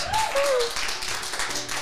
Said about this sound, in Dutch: Geef haar een applaus.